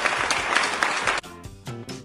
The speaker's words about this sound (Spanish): Es más, aplausos para Chernobyl que no está. Pero ya todo el mundo sabe quién es. Ah. Chernobyl. Aplausos para Chernobyl.